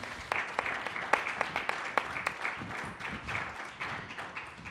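An audience applauds, including for Benito Taibo, director of Radio UNAM, many hands clapping at once in a dense, steady patter with a few sharper individual claps standing out, holding at an even level for several seconds.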